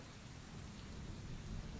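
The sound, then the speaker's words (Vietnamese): Heavy rain pours down in a steady, dense hiss, with a low rolling rumble of thunder underneath, continuous, with no voices. “Mày chạy về nhà lấy cái bạc Với mấy cái cọc ra đây căng lên đi Để che chắn nước mưa bớt”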